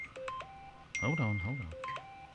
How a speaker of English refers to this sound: so it was your phone was sending you a message indicating you'd gotten a delivery